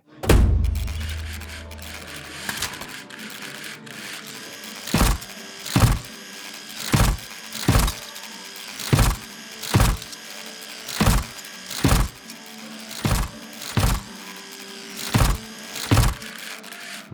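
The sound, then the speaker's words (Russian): A malfunctioning exoskeleton worn by a stalker whirs and clanks mechanically with each step as he walks about 10 metres to a bar counter, about a dozen evenly paced strides, fairly loud over a low continuous background hum. “Сталкер прошел 10 метров до стойки бара, дополняя мелодию из магнитофона звуками выведенного из строя экзоскелета, и сгрузил мешок в проход, ведущий за стойку.”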